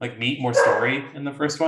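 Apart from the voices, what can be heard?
dog barking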